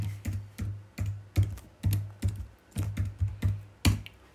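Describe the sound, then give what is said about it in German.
Someone types a password on a computer keyboard, about a dozen sharp clicks with soft thumps in a quick, slightly uneven rhythm, with no one speaking. “ich habe jetzt mein Passwort eingeben.”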